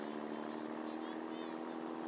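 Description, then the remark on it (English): An armored car's engine drones steadily for a couple of seconds as it rounds a corner at the waterfront while delivering a payroll to a shipyard, a constant heavy rumble with a humming low tone and no break in volume. “Suddenly, as the armored car rounds the corner,”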